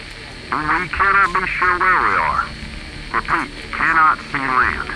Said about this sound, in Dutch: Er volgen een paar momenten van stilte en het enige geluid dat ze horen is statische ruis uit de radio.